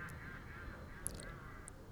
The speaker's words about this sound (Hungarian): ez mi? Ez egy állat volt. Ez egy kacsa volt? Hát még az is lehet, vagy, vagy egy oszkuláló fiatal.